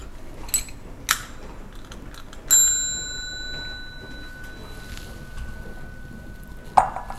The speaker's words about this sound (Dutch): Oh, dat klonk mooi, hè? Ding. Dat klonk echt mooi. Ik denk dat als je alleen maar luisterde, dat je even opkeek van, hé, hey, wat is dat voor een mooi geluid? Doe me denken aan mijn eetbelletje.